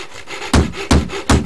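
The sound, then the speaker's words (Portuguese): Loud, rhythmic rasping of a carpenter sawing or sanding rough wood while making a piece of furniture: three sharp, gritty strokes about a third of a second apart over a steady scratchy rustle, with no voices. “Ele utilizou habilmente o martelo, a lixa, o metro, o parafuso, além de muitas outras ferramentas.”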